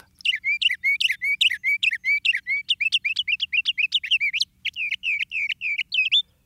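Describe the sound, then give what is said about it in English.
A songbird sings a rapid, continuous series of bright chirps and varied whistled notes, clear, with brief pauses between phrases and no voices. “The northern cardinal reigns in seven states the most. The western meadowlark was picked by six, and the noisy northern mockingbird by five.”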